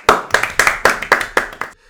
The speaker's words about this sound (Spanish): Coño, dense un aplauso.